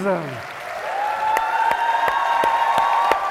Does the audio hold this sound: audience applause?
yes